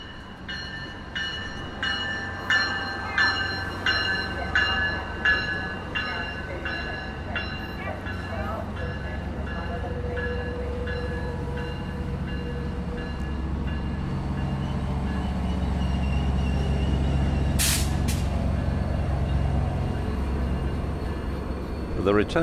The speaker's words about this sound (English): Train for Bakersfield just arriving.